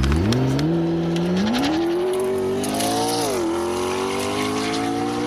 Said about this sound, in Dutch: Ja, de P1. Oh, eh, de, eerste. Ja, de allereerste, de hypercar. Zeer zeldzaam model want er zijn maar 375 van gemaakt. En dit is ook de allereerste die gemaakt werd. 3,8 liter V8, een elektromotor erbij, krijg je 916 pk.